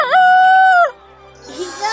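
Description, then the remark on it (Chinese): A voice imitates a rooster's crow as a demonstration of how to crow: one loud, drawn-out call that rises, holds a steady high pitch, then falls away, followed by a moment of quiet and some faint rustling. “必须要学会打鸣，大家看我的示范。”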